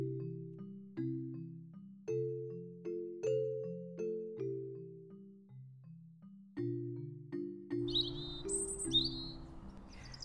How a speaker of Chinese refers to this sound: 清晨，小易在温暖的阳光和悦耳的鸟叫声中张开了眼睛